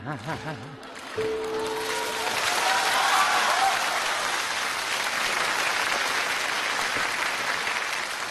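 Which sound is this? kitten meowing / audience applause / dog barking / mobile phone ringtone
audience applause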